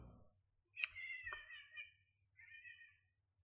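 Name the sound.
cat hissing and meowing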